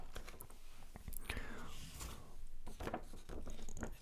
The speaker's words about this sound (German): Ich raschel da mit meinen Zetteln, schauen, dass ich mich nicht wieder in der Zeile vertue.